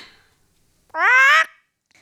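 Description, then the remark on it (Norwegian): A parrot lets out one loud, harsh squawk lasting about half a second, with near silence before and after. “Brage, hvor er bomberommet? Snakk da, papegøye!”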